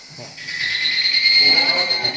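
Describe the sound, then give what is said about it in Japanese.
A chorus of higurashi evening cicadas singing in summer from a forest beyond a south-facing window swells in after a brief moment and holds steady, a dense, shrill, overlapping trilling that fills the air from the trees with no one speaking. “東日暮の大合唱。それが、こんな感じです。”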